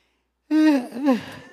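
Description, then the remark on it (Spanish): A single drawn-out yawn, fairly loud, rising into a voiced, open-mouthed groan that dips and swells once more before trailing off, heard alone after a brief silence. “Que no ande con sueño y, ya me está contagiando su bostezo.”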